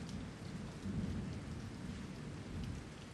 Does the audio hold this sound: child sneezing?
no